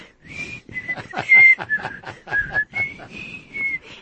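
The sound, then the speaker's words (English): A person whistles a bouncy tune, the whistled theme of an old radio inspector show: a string of short and held notes in a steady rhythm lasting about four seconds, with no talking over it. “It was a whistle, and the inspector would whistle.”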